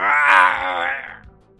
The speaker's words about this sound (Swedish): Du har förstört benet vid knäs, knäskålen. Mm. Och han skriker i smärta.